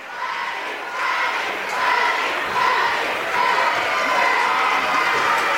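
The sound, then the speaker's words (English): A student section cheers at a Middleton home basketball game against Madison LaFollette after a Middleton student manager made a basket, a dense roar of many voices yelling and whooping that swells after the first second and stays loud and steady to the end. “you could hear in the background the student section going bananas.”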